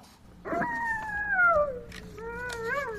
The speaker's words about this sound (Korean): 여우 울음소리 한 번 더 들려주세요.